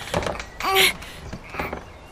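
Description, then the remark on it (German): A stuck, warped wooden garden-shed door is rattled and yanked without opening, with knocking thumps and a brief high, creaking squeal in the middle, fairly loud. “Äh, also, die Tür ist aber ganz schön verzogen.”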